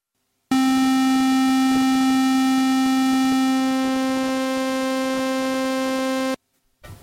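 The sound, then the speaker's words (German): A loud, steady synthesizer tone with a buzzy square-wave character, a sawtooth gradually blended in, holding for about six seconds before stopping abruptly. “wir können mal das Rechteck einfach so machen und den Sägezahn langsam lauter machen.”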